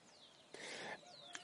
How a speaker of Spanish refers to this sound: No sé si tú logras entenderle, pero allá están los los Isaías y otros pajaritos. Ellos no desfallecen, siempre empiezan de nuevo, siempre.